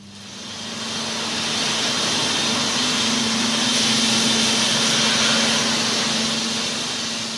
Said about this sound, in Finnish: Mitähän sä arvioisit, kuinka korkea tuo on tuo seinämä, mitä tässä nyt porataan? No, tämä on 5,5 metriä ja 5 leveyden nämä tunnelit.